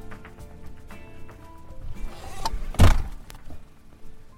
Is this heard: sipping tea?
no